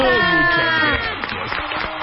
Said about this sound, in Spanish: Un aplauso para Santa.